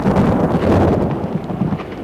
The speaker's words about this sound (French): La pluie grandit, le quenard gronde. Ils sont essoufflés, la pluie, le vent, ils empêchent de respirer.